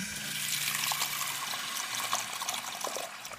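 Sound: water running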